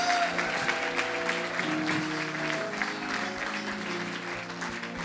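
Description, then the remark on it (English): A church audience claps steadily for people going back to their seats, a dense wash of many hands with sustained organ or keyboard tones underneath, filling the whole stretch at a moderate, even level. “Clap for them as they go back to their seats.”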